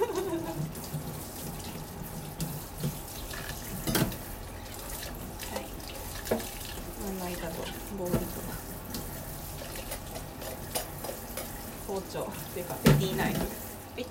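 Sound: tap water running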